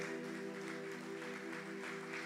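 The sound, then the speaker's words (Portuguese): A crowd claps loudly and steadily throughout, applauding for Jesus, a dense wash of applause layered over sustained, droning musical tones, like a held keyboard chord. “Você pode dar um aplauso bem forte para Jesus?”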